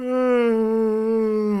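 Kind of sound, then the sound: human body sound, big yawn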